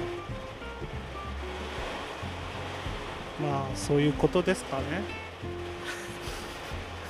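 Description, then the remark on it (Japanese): Heavy rain roars in a steady, loud wash of hiss that runs the whole time, with men talking over it partway through. “大雨ですげえ”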